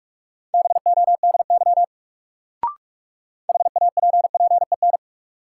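Rapid Morse code at about 45 words per minute sending practice sentences from a Top 400 Words new word drill: two bursts of fast on-off beeps at one steady mid pitch, separated by a pause broken by a single short click. No one speaks.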